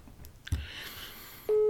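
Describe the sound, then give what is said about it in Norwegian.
A telephone line clicks, a short stretch of faint hiss follows, then a loud, steady electronic beep cuts in as a phone call reaches an answering machine. “Så, nei, men jeg tror eh, at Dette er telefonsvareren”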